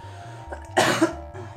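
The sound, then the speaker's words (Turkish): A single sharp cough bursts out, loud and brief, against a low steady hum with no one talking. “O zaman ben bir öksürük arası vereyim.”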